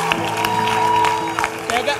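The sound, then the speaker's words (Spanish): An audience applauds and cheers for the Lord, a steady wash of clapping with raised voices and shouts mixed in, loud and dense throughout, with a sustained tonal hum running underneath. “Vamos, aplauda ao Señor!”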